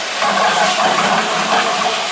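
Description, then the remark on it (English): Homemade tomato sauce is poured into hot fat saved from cooked sausage while making pasta, with a loud, steady sizzling hiss that swells slightly and holds for a couple of seconds, with no voices. “Then I'm gonna take tomato sauce that I have made right into the, the sausage fat.”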